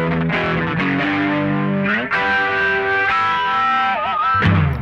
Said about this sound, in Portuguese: Temos os pedais de modulação, como o flanger, que traz um efeito no tempo, só que variável, que faz parecer que tem um avião passando perto de quem está ouvindo, ou efeito de tubo.